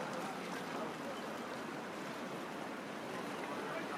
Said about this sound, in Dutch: Een rustige zee. Kleine golfjes kabbelen tegen de kade aan.